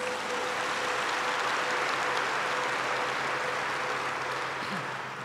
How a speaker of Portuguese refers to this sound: Você pode dar uma salva de palmas para Jesus?